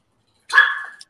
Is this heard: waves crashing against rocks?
no